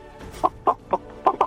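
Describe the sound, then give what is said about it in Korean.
A person imitates a chicken in a voice-impression contest, giving five short, punchy clucks in an uneven rhythm, loud, with no other talking around them. “성대모사 달인을 찾아라. 음, 어떤 것이겠습니까? 뭐 닭 울음소리”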